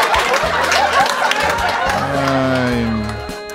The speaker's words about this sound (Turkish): Evet peki alkışlayanlara teşekkür ederim. Eğer etrafınızda alkışlamayan biri varsa bize trafikte kafayı yedirenler onlar.